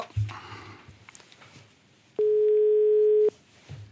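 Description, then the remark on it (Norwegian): A single steady telephone ringing tone buzzes on the line for about a second, loud and clear, as an outgoing call is being placed, over quiet background noise with no one speaking. “Oi, nå ringer jeg. Skal vi se. Oi, der er telefonen i bakken. Ja, da ringer det.”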